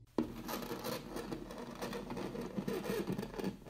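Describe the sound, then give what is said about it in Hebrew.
Steady, rough scratching against a wooden bedroom door, continuous for a few seconds with an irregular rasping texture, fairly quiet, with no voices. “ואז, לפתע, שמעתי רעש גירוד על דלת חדר השינה שלי.”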